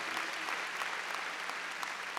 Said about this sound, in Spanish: Qué lindo, démosle palmas a ese Señor del sábado. Qué lindo, hermano.